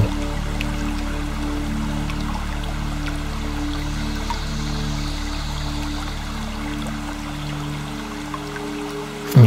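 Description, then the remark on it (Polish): A small stream trickles steadily, flowing down from one rock ledge to another, a continuous wash of flowing water with a low rumble underneath and faint scattered drips, level and unbroken for the whole stretch with no voices. “niech ten mały strumień spływa z jednego progu skalnego na drugi.”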